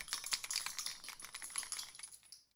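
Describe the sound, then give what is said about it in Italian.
A quiet, rapid clatter of a trembling wooden puppet's leg joints knocking, with four coins hidden under its tongue rattling, a continuous jittery stream of small clicks and jingles that fades out at the end. No voices. “Il burattino, vedendo la morte davanti agli occhi, inizia a tremare forte, così forte che le giunture delle sue gambe di legno e le quattro monete che teneva nascoste sotto la lingua fanno rumore.”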